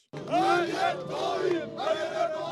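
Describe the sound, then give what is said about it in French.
A small but compact crowd at Erdogan's 40th and final campaign rally, on a stage in a narrow street of Istanbul before presidential and legislative elections, chants and shouts together, many voices rising and falling in loud, sustained waves that barely pause across the short stretch. “La foule est petite mais compacte sur une scène installée dans une rue étroite.”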